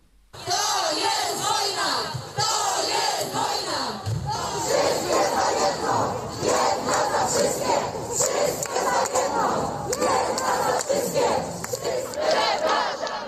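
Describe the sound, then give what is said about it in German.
A large crowd of women shouts and chants angrily in Polish in unison, loud and sustained, with rhythmic cries rising over a dense, echoing roar of many voices at a demonstration in Poland against the tightening of abortion law. “Also es, sind wütende Frauen zu hören, die gegen die Verschärfung des Abtreibungsrechts in Polen demonstrieren.”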